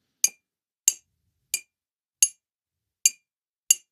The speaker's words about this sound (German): Ja, so, jetzt äh, guck mal, also geh mal äh, immer in 45 Grad Schritten vorwärts mhm. und klopf mal okay. gegen die Tasse. Ja.